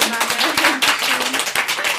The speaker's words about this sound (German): Ich würde sagen, einen fetten Applaus.